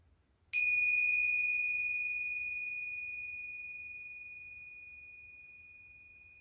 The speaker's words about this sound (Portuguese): Respira. Vai deixando esse som ecoar dentro de você. Torne-se esse som do sino tibetano.